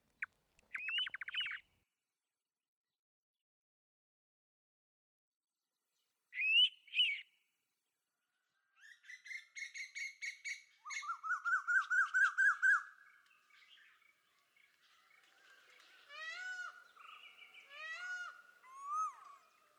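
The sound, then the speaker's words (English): A pitta calls at dawn, usually around 6 am, a couple of short whistled bursts separated by silence, then rapid runs of repeated bright notes joined by other birdsong, clear with no talking. “And then, the pitta awakens again, usually at 6 am, and initiates yet another morning raga.”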